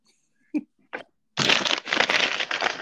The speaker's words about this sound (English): Stop, oh, stop ruffling a bag of chips. Those weren't paper. chips.